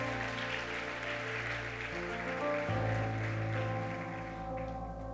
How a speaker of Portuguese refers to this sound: Dá uma salva de palmas a Deus se você concorda.